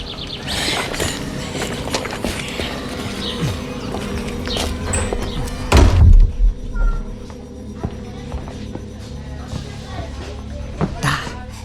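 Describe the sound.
The door of a side room shuts with a single heavy, low thud about halfway through as a man goes in with two other men, cutting off a busy murmur of background voices and clatter, which turns much quieter afterward.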